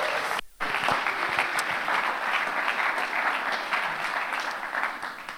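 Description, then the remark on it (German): Sustained applause from an audience for the Baby Lounge, the people looking after the children: a dense crackle of many hands clapping at steady loudness for several seconds, briefly dipping near the start before swelling again. “Deswegen Applaus für die Baby Lounge. Applaus”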